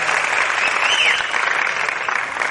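A crowd bursts into steady, dense applause, many hands clapping at once in a continuous wash that holds at a consistent loudness throughout, with a faint whistle rising briefly through the middle.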